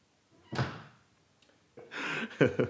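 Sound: door being shut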